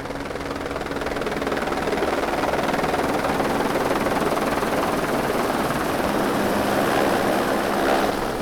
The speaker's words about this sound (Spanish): Es un helicóptero de... del gobierno. Vienen por nosotros.